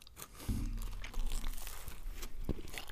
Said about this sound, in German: Ähm, genau, ich beiß eben nochmal meinen Krapfen.